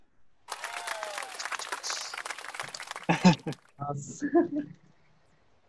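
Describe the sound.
A few seconds of brisk, close applause from a small group, with a brief voiced whoop mixed in, followed by people talking briefly once the clapping fades.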